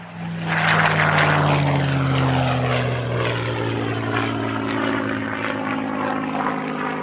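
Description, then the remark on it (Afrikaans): The Merlin piston engine of a Spitfire aircraft roars steadily, its deep harmonic drone sliding slightly lower in pitch over several seconds, with a rough propeller growl and no voices. “Maar een van die kenmerke van die Spitfire vliegtuig is daardie klank van sy Merlin engine.”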